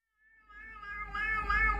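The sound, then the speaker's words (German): A cat meows in a long, rising and swelling cry that grows louder toward the end, played back from a video by a man who films this with several cats, with no talking over it. “Aber das ist derselbe Typ. Der macht das mit mehreren Katzen.”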